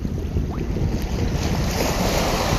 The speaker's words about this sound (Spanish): Desde la inmensidad de tus ojos y tu imaginación, cuando estás escuchando estas olas, percibe la inmensidad del mar, el azul profundo que te trae calma y tranquilidad.